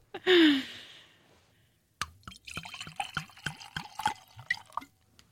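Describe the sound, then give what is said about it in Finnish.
A brief breathy exhale, then sauna rosé wine glugs and gurgles into glasses for tasting, in irregular bursts of splashing liquid for several seconds, with no talking. “Meillä ei ole nyt mitään lantrauksia, vaan meillä on nyt aitoa tavaraa tässä tänään, niin maistetaanpas tästä saunarosesta lasilliset.”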